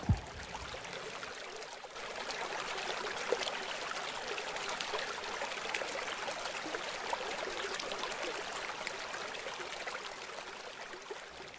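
River water flows steadily over rocks, a continuous babbling with bright splashy detail and no pauses, heard alone without any voices.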